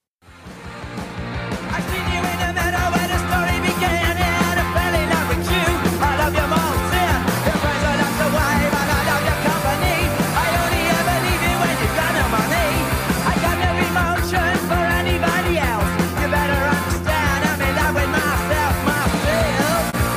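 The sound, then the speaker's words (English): A loud, dense rock song plays throughout, with driving drums, distorted guitars and a steady full-band wall of sound that kicks in almost immediately and never lets up. “Let's play one more song, man, before we uh we move on.”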